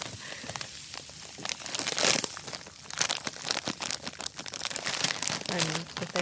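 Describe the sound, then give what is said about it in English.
Crinkling of a Sour Patch Kids candy wrapper with loose sugar powder shifting inside, a continuous rustle of sharp crackles and soft gritty hiss with irregular bursts. “You can have like crinkly. Ooh, there's a lot of sounds in here because these are Sour Patch Kids.”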